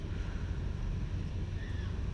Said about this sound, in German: Und hier ist auch ein ganz schöner Wind. Und hier ist so ein kleiner Baum und immer wenn der Wind kommt, vielleicht hört ihr auch das Rauschen der Blätter, dann fallen so ein paar Blätter ab.